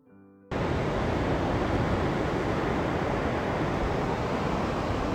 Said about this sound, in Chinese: 我现在面对着中国南海，给喜马拉雅的小朋友录一段海浪拍岸的声音。